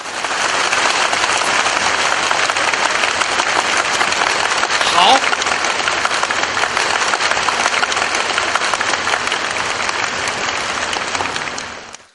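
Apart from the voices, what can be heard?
audience applause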